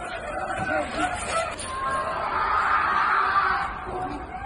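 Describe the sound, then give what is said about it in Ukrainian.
Muffled human cries and shouts from people trapped under the rubble of a destroyed entrance of a multi-storey apartment building in Dnipro, hit by a Russian missile, rise and fall over a steady noisy background, with a few voices overlapping in a continuous, strained wail for the whole stretch. “З під завалів зруйнованого під'їзду у багатоповерхівці чути крики людей.”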